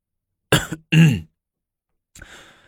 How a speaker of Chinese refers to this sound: 李治坐在玉榻上咳嗽了一声